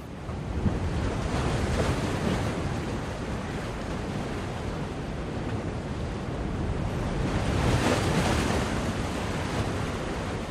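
Ocean waves break on a beach in a steady, loud roar of surf, swelling twice as bigger waves crash in, with a windy rush underneath and no voices.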